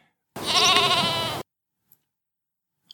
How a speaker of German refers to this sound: Du siehst auch schon, wie er Luft holt und bist gespannt, wie dieses Geräusch jetzt wirklich mal live erlebt ist. Nicht nur aus dem Fernsehen, sondern wie es wirklich live aussieht und wie es klingt. Und der Elch holt Luft und raus kommt ein